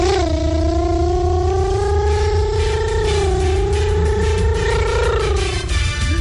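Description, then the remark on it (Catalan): A caller on a Catalan radio morning show imitates a superbike engine revving: one continuous, loud, high-pitched buzzing drone that rises and dips slowly for about six seconds over a rough, noisy background. “algun problema al tubo d'escapament, sí, eh? Aquesta, sona massa agut, aquesta sí.”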